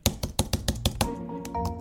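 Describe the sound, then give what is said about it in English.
Heavy typing on a computer keyboard: about seven firm keystrokes in a quick, steady rhythm, then the clacking stops and a faint sustained tone lingers. “The noise of clicking keys is the soundtrack of cubicles everywhere.”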